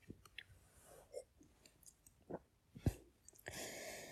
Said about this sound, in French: Puis c'est pour ça que je vais boire une grande gorgée de vin avant de continuer.